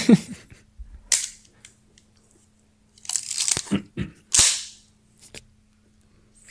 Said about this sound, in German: Und zwar ist es eine Kodak Retina von 1964, gebaut in Stuttgart.